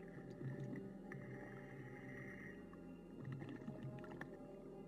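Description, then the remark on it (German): Continuous low, murky bubbling water with a thick gurgling texture and faint tonal wavering on top, steady throughout with slight swells, and no voices. “Weil wenn das Blubbern schon so laut ist, dann können die Stimmen nicht so leise sein.”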